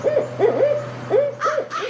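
An owl hoots repeatedly in a quick series of wavering calls, clear, with a few higher-pitched hoots near the end over a low steady hum. No one speaks.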